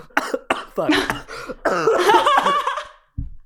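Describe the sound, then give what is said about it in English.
A loud fit of coughing into the microphone, several harsh raspy bursts running together over about three seconds, then a brief pause and one short final cough. “keep me coughing into the microphone.”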